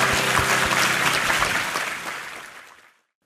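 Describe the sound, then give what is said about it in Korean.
A church audience bursts into steady applause, given as thanks and glory to God. It is a dense wash of many hands clapping that holds for a couple of seconds before fading away into silence. “네, 우리 하나님께 감사와 영광의 박수 올려드리겠습니다.”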